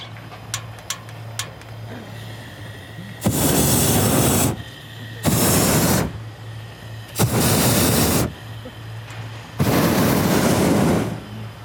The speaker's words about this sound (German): Io faccio una controlla del Brenner, noi siamo due, sempre per mirare se tutto funziona con questo auto.